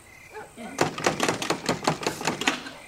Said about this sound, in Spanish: La puerta se ha cerrado.